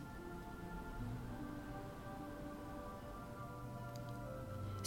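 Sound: dolphin whistles and clicks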